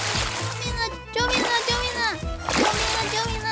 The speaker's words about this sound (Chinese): 没想到桥上的木板居然有水，走一走就不小心给滑倒了。哎呦！结果她居然跌进了小溪内。